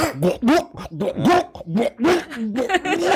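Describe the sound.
A person mimics a cat throwing up, making a rapid series of throaty, gagging heaves and hacking yelps, fairly loud, with no other talking.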